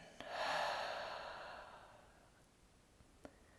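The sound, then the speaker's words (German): A single loud, breathy exhale through the mouth after breathing in through the nose during a breathing exercise, rushing out quickly and tapering off over about two seconds, followed by near silence with a couple of faint clicks. “Durch die Nase ein und laut durch den Mund wieder aus.”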